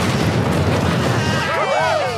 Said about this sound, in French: Explosion, flamme, incendie